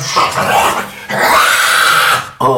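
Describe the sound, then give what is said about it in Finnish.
A person voices a rough, guttural monster growl, loud, for a creature in the darkness of a cave, held for about two seconds with a brief break, then a short snarl at the end. “Ja te muut kuulette ää, teidän edestä, luolan pimeydestä, tota, ja näette pimeydessä muodon, joka”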